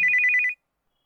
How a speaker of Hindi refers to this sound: बार बार ये बात उसको ध्यान आ रही थी तभी सार्थक को फोन आया